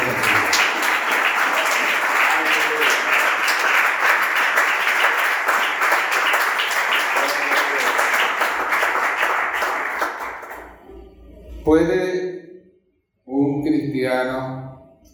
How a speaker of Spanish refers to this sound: Denle un aplauso al Señor, por favor.